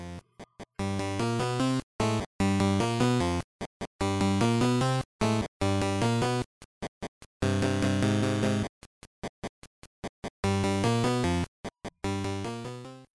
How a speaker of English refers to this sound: All right, guys, I hope you enjoyed that awesome music.